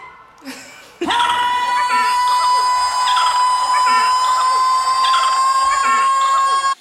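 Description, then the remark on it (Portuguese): An ambulance siren cuts in abruptly after about a second and holds a loud, steady, high-pitched tone to the end, with people talking underneath it. “Uma ambulância?”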